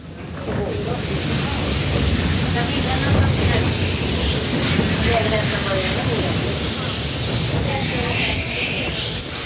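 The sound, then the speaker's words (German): A steam train on the line from Uppsala to Lenna, Sweden, hisses steadily and loudly for the whole stretch, a broad rushing wash of steam over a low mechanical rumble, with faint murmuring voices buried in the noise. “Und wenn man genau hinhört, dann kann man das Fauchen der Lennarkatze auch heute noch hören.”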